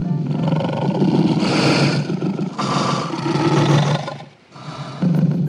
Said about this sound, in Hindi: कुएं के अंदर से आती हुई अपने ही दहाड़ने की गूंज सुनकर उसने समझा कि दूसरा शेर भी दहाड़ रहा है